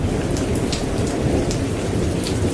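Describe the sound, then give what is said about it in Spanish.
A heavy thunderstorm roars steadily, dense rain pouring down over a deep, rumbling low end of thunder and gusting wind, with sharp splashes of drops standing out now and then. “El viento también tenía la fortaleza de los que acompañan las tormentas de verano en el norte de la Pampa.”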